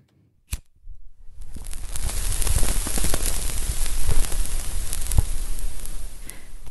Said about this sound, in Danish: Lyden af cigaretter. For der er tyk røg i rigtig mange film og serier, og hvor skuespillerne pulser løs.